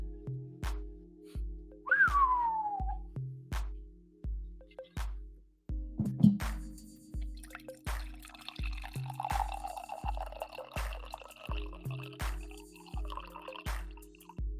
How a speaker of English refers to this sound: Oh no. The the good news was that was a nice pour. The bad news is I'm now out of coffee.